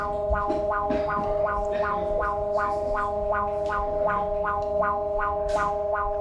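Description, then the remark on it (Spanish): A seismic alert warning siren sounds continuously during strong earthquake shaking, a loud, steady, buzzy multi-tone drone pulsing in a quick, regular rhythm about twice per second, with no voices over it. “Alerta sísmica.”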